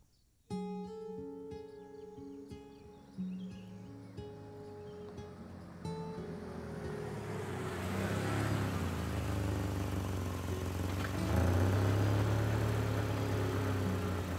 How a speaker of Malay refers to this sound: Lalu muncul kereta peronda masuk ke pekarangan rumah Pak Yus